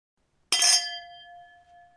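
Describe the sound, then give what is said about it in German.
A single bright clink of glasses touching in a toast, clear, with a ringing tone that lingers and slowly fades over about a second and a half. “Prost.”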